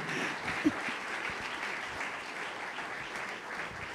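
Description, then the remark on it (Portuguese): An audience applauds the name of the Lord steadily, a dense, even wash of many hands clapping throughout, with one brief louder clap near the start and no voices standing out. “Aplauda o nome do Senhor, amado, Deus abençoe.”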